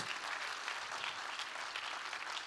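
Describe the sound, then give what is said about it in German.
Steady audience applause from many hands, a dense, even crackle of clapping that holds at a constant loudness throughout, with no voices standing out, given for the decoration, setup and teardown team. “Und wir wollen, lasst uns dem ganzen Deko- und Auf- und Abbauteam einfach nochmal einen Applaus geben.”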